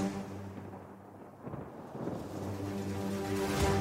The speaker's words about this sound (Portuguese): Ela deu à luz o quarto filho a bordo de um navio, em meio a uma terrível tempestade.